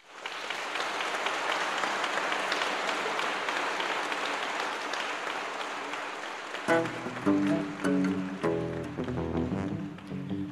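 Dense, steady audience applause after a live song performance, broadcast on Radio Nacional, fills the first several seconds, a broad crackling wash of many hands, then thins as pitched music comes in and carries on to the end.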